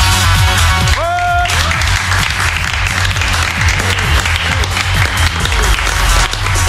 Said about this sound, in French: Donc applaudissements pour ces deux groupes qui sont nos nouvelles stars de ce soir.